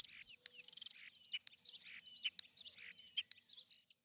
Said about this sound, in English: How well can we humans distinguish these changes in birdsong? It's pretty challenging for us to distinguish these differences in the birdsong because we're listening with human ears, and the human ear is quite different from the bird's ear.